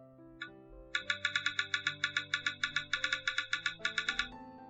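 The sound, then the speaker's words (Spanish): A phone screen reader's empty-area feedback tone, played when navigating the screen with a finger and finding no item or icon: a rapid string of bright electronic chirps repeating for about three seconds, fairly loud, over a soft sustained musical hum. “Es decir, cuando en la pantalla no hay nada, suena esto.”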